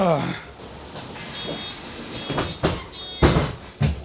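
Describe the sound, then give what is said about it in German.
Bus doors close with a repeated high warning chime as the engine is switched off, followed by several sharp pneumatic hisses and thumps; a brief voice is heard at the very start. “aus, Türen zu.”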